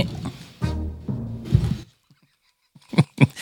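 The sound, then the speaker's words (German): Low creaking and strained, groan-like noises give way to a brief silence, then a few sharp cracking pops in quick succession: a person's joints cracking while sitting down. “Man, man merkt alt, dass man alt, ähm, man merkt, dass man alt wird an den Geräuschen beim Hin- und Hinsetzen ja.”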